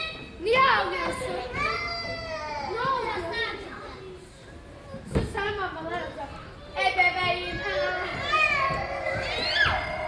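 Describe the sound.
Children shout and chatter excitedly at a playground in Istanbul, several high voices overlapping with a sharp burst midway, lively and fairly loud throughout.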